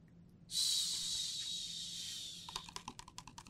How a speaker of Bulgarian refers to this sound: Чувате ли капките? Валя силно цял ден – Улиците блестяха мокри.